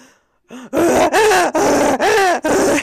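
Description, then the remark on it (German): A human voice imitates a rutting stag, letting out a series of loud, drawn-out groaning bellows with rising and falling pitch, about five in a row. “Imitiere einen brunftigen Hirsch.”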